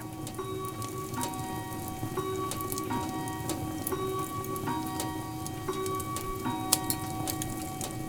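A fire crackles and pops steadily in a house while a cuckoo clock on the wall ticks at an even pace in the background, with a faint low hum underneath and no one speaking.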